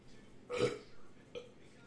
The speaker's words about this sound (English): But oh my God, I got a burp.